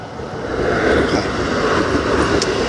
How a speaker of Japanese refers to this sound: 今、えー、京成電鉄がですねえー、私が私が立っている踏切の近くをこう走って通り抜けていきますはい成田空港行き